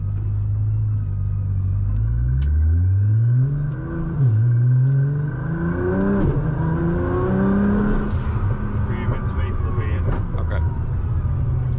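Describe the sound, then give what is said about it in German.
A tuned GTR sports car engine pulls hard, its droning pitch climbing steadily, dipping briefly at a gear change, then rising again over a constant loud rumble. “Aber ich weiß nicht, ob der Sound nicht so geil rüberkommt, aber der Sound von dem Auto hört sich nicht so geil an, finde ich.”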